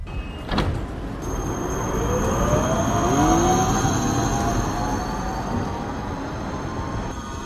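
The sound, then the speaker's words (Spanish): A city tram in Brno, Czech Republic, rolls past in the afternoon, its steady rumble filling the street, with a whining electric motor and a faint metallic squeal of wheels on the rails. No one speaks. “Este es el sonido del tranvía de Bernó.”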